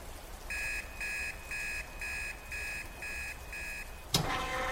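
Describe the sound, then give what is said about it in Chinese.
A detention center entry alarm, the bell for someone entering or leaving, rings in seven short, evenly spaced high-pitched electronic pulses, then stops; a sharp clack and a brief burst of hiss follow. No one speaks. “警铃响起，是有人进出拘留所的铃声。”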